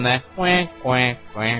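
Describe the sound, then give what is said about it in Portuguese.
A person vocally imitates a bubbling cauldron, repeating a nasal syllable in a steady rhythm of short bursts, with nothing else behind it. “Não, é o, é o, barulho, é o barulho do, do caldeirão,”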